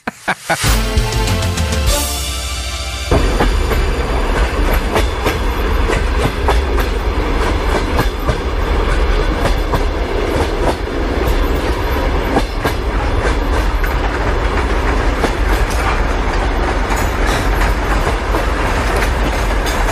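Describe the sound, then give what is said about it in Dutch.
A train rolls steadily along the rails, its wheels beating a continuous clickety-clack rhythm, loud, with a brief rumbling start before settling into constant motion. No one speaks. “Ja, alsof mensen nog nooit een trein hebben gehoord.”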